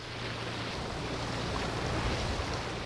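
A boat motor drones steadily as a boat passes on the Havel river between Molkenberg and Warnau, its low hum blending with rushing water and breezy wind noise, a constant wash of sound with no voices.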